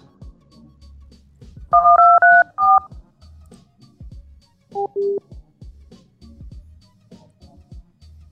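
Telephone keypad tones dialing a remote access code: a quick run of four or five loud, clipped two-tone beeps, then a pause and a single lower beep, over a faint low background hum.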